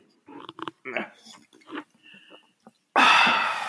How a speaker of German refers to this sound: Darauf erstmal einen Schluck Wasser.